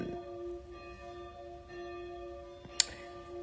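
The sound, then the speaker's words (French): A clock chimes noon with resonant, lingering bell tones that hum steadily, joined by a sharp metallic strike near the end. No one speaks; the chime is fairly soft. “Et ah, putain, il est midi. l'horloge, eh, je, fais du bruit.”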